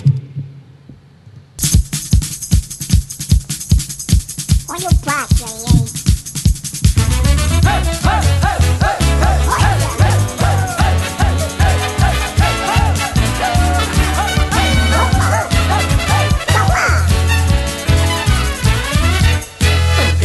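A song kicks in after a brief quiet moment, opening with a steady thumping beat before fuller instrumentation joins around seven seconds and plays on loud and upbeat to the end.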